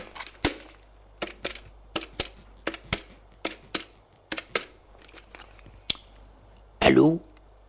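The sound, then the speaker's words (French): A gendarme dials a telephone number: a steady series of sharp clicks, about a dozen presses at an even pace, ending with a brief louder rustle. “Le gendarme soupire et fait le numéro de téléphone.”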